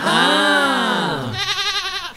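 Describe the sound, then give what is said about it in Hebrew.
A single loud bleat from a ram, a male sheep: a long wavering cry that sags in pitch, then breaks into a rapid tremolo near the end, heard on its own. “היי, תראה, יצחק, יש שם איל. איל זה הזכר של הכבשה”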